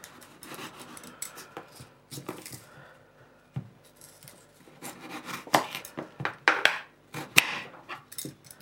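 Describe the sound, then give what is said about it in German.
A knife dices peeled potatoes into cubes on a cutting board, with irregular sharp taps and scraping cuts that grow louder and denser toward the end. No one speaks. “ich schneide die einfach in Würfel”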